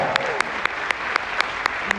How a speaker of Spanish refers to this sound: Y démelo un aplauso a este negocio.